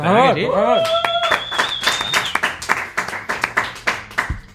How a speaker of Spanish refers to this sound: Estamos aquí a tope, a tope, a tope, a tope, con un montón de audiencia. Tenemos 15.000 personas aquí en un estadio y van a aplaudir ahora mismo, seguro.